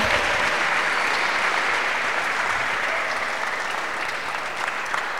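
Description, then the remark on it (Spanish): A crowd applauding Ministerios BID steadily, a dense, even wash of many hands clapping at a sustained loud level for the whole stretch, with no voices standing out. “Eso, hay que darnos un aplauso a Ministerios BID.”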